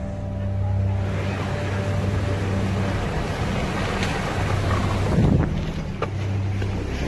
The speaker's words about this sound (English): This is what it sounded like for one homeowner as a wall of water came barreling down the hill towards his house. Turn around! The flash flood's right there! The flash flood's right there! Get out of here! Go!